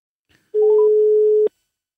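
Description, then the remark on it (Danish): A phone number is dialed to place a call: a steady telephone tone hums for about a second, with a few short higher beeps near its start as keys are pressed, then cuts off with a click. No one speaks. “Du, du kan også høre, der bliver tastet nu. Vi prøver at ringe til, til det nummer, og så se, om han, han tager telefonen.”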